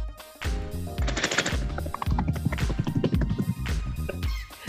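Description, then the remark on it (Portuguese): A person imitates a helicopter with their mouth, producing a loud, rapid rhythmic chopping that pulses steadily for several seconds with no talking. “Helicóptero”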